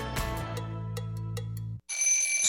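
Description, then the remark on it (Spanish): An alarm clock rings with a loud, steady electronic tone and faint rhythmic ticks. After a brief gap, it switches to a shrill, high-pitched buzzing beep. “Suena la alarma.”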